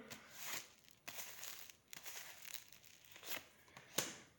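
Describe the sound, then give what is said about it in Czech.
Soft papery rustles and brief swishes of a card being drawn and laid down, several quiet bursts spread across a few seconds, with no talking. “Sice nemám jeho údaje, ale hodíme kartu.”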